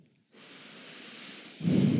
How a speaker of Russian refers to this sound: Дышишь, да?